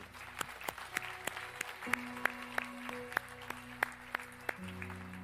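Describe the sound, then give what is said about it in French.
A steady round of applause from an audience applauding the Lord, many hands clapping in a dense patter with a few sharper claps standing out, over a low sustained hum from instruments. “Est-ce que quelqu'un veut applaudir le Seigneur pour sa grâce”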